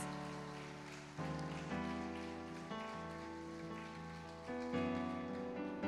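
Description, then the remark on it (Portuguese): An audience claps steadily to glorify the Lord, in a dense, continuous wash of handclaps, while sustained keyboard chords play along and shift every second or two. No one speaks. “Glorifique ao Senhor com as suas palmas.”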